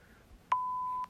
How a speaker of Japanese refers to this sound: ピー音が。